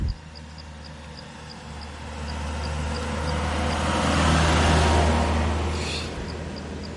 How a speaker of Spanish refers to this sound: Ya veis cómo suben los coches aquí. Imaginaros con una bicicleta, que ni siquiera pueden. Ahora va a pasar.